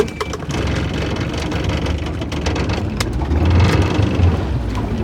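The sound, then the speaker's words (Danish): A motorboat engine runs at a steady idle, a loud, continuous low rumble with a few brief clanks and knocks over it and no voices. “Sæt vi på, at vi kan starte motoren igen, ikke?”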